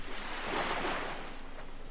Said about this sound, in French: vous vous mettez à écouter les vagues de la mer. Les vagues qui viennent et repartent sur le sable. Vous ressentez encore votre respiration. Inspirez, soufflez et en même temps les vagues de la mer viennent dans un mouvement